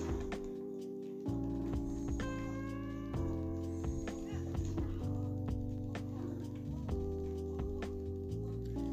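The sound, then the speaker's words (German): Steady, rhythmic hoofbeats of a ridden horse clip-clop at a trotting pace throughout, moderately loud, layered over sustained tonal background music. “So gut, dann reiten wir jetzt mit dem Pferd weiter.”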